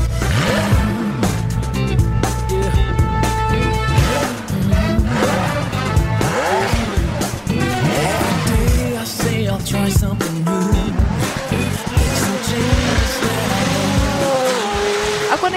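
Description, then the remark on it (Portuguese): A McLaren Senna sports car roars past at high revs, its engine note rising and falling through gear changes while tires squeal sharply, loud throughout with no talking. “O McLaren Senna é a última palavra em carro esportivo da McLaren Automotive.”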